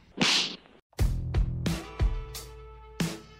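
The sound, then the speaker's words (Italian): A quick whooshing swish is followed by a loud series of about six sharp slap sound effects at uneven intervals, each with a short booming tail, with no one talking. “Ciò significa che siamo arrivati al momento dello schiaffo della settimana.”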